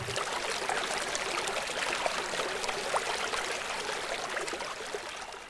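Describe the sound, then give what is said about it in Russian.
Steady rushing river water flows continuously with a bright, bubbling hiss and occasional small splashes, even in level, with no voices. “Он глубоко вздохнул, и река понесла его вниз по течению.”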